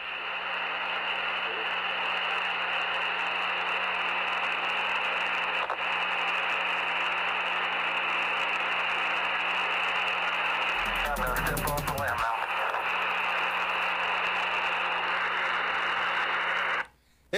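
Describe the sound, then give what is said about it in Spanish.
Steady, dense white-noise static from an old radio transmission of the 1969 Moon landing, a constant hiss over a low hum, with a brief crackly disturbance partway through before the signal cuts off abruptly. “más ruido blanco que, otra cosa, pero ya estábamos millones de seres humanos.”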